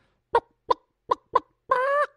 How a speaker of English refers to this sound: Uh, there is a bird that we consume called chicken, right? We've all eaten a chicken.